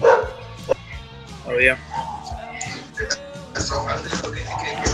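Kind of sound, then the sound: animal, dog barking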